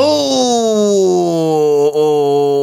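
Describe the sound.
A voice imitates a cold car engine cranking to life on a winter morning in Seoul at minus 12 degrees: one loud, sustained droning hum held for a few seconds, its pitch sinking slowly, with a brief catch near the end.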